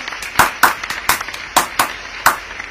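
Scattered audience clapping as a shout-out to three musicians with a new single: a handful of sharp, crisp claps in an uneven rhythm over a couple of seconds, fairly loud, with no voices.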